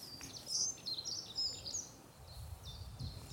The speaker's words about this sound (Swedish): Här eh, eh, precis bredvid oss sjunger ju flera fågelarter. Och nu satte ju en järnsparv igång här precis. Kan se ifall vi kan rikta micken mot den. Denna doldis i fågelvärlden fast ändå väldigt vanliga fågel.